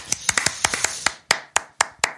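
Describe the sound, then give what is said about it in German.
A short round of hand clapping applauding the drum kit being named instrument of the year 2022, about a dozen sharp claps, quick and slightly uneven at first, then slower, spaced-out and louder claps toward the end. No one speaks. “Ich würde sagen, einmal Applaus wert.”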